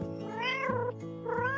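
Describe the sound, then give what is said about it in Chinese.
An orange-and-black cat, sitting before a bright green wooden door in a back alley behind a row of old shophouses, meows twice in a row, drawn-out, rising-and-falling cries with a bright tonal quality, moderately loud and heard alone with no talking. “在一扇鲜绿色的木门前面，一只橘黑色的花猫安静地坐着。”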